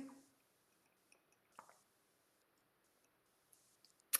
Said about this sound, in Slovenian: Ah, Samo malo vode popijem.